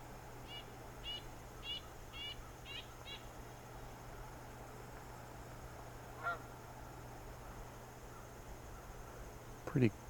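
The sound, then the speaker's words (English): Faint honking from a flock of about 60 Canada geese passing overhead, a quick series of calls early on, then a few scattered honks over a steady insect-like hum. “Got a um, flight of Canada geese going over here now.”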